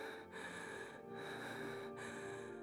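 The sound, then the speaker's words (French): Ragged, panting breaths of a woman rush in and out in a steady rhythm, fairly quiet, with brief catches between gasps and no talking. “Ta respiration se fait plus saccadée. Tu es haletante.”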